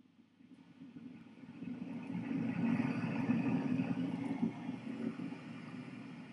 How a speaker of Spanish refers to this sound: Pero sí, a priori va a funcionarte y para eso eh, yo suelo utilizar ruido de ventiladores. ¿Vale? Voy a colocar una vez más aquí.